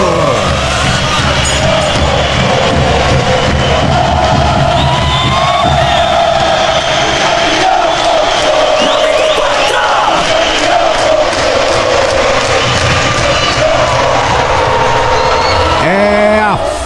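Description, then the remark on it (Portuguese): A loud arena crowd of Jaraguá fans chants and cheers continuously, a dense roar of many voices with sung, rhythmic swells that stay at full intensity throughout, enveloping. “O grito da torcida chega a arrepiar que área.”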